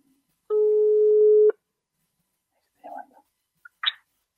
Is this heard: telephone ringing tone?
yes